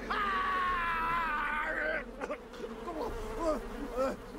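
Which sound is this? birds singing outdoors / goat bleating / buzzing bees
buzzing bees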